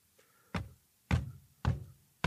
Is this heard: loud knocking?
yes